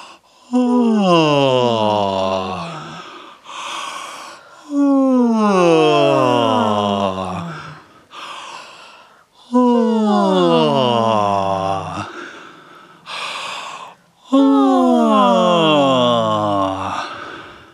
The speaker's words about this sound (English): Next up, yawns. This is so that you can open up your soft palate. It's just going to be like a regular yawn.